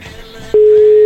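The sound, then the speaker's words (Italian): A loud, steady telephone busy tone on an unanswered call cuts in sharply halfway through and holds to the end, preceded by faint, murky background sound on the line. “Sentiamo se risponde. Dai, rispondi, dai, che ce la puoi fare, dai, prendi questo telefono!”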